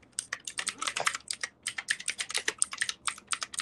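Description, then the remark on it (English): Rapid, uneven clicking of keys being struck on a computer keyboard as someone searches for a timeline, a dense flurry of sharp taps with brief pauses between bursts, no voices. “What keyboard were you attacking?”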